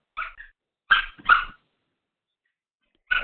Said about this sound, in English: So yeah, that's the puppies.